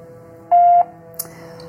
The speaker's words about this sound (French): Messagerie Orange, bonjour. La personne que vous essayez de joindre n'est pas disponible. Veuillez laisser votre message, après le bip.